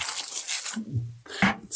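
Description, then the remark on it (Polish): Crinkly paper rustling in a few bursts as a box holding a case is unpacked, with a louder stretch at first, a short pause, then more crackling handling. A faint low hum or murmur sits briefly underneath. “Ale szeleścisz? Tobie tak, tylko tak jedno powiem, O, tak. No, to jest taki papier, który trzyma.”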